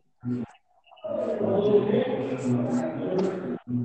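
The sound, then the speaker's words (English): A person talks on a call when the sound suddenly drops out to near silence for about half a second, then the voice comes back abruptly and continues, as the caller's audio briefly cuts out. “Yeah, you cut out.”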